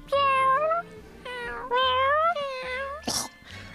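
A cat meows several times, loud, drawn-out, wavering cries with brief pauses between them and a short scuffling noise near the end.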